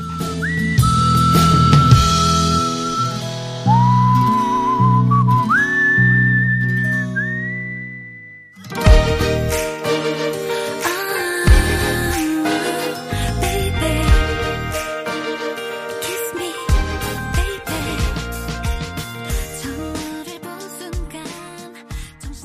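An upbeat pop song plays loudly and continuously, opening with a bright whistled melody that rises in steps before a short pause, then the full band kicks in with steady drums and layered instruments.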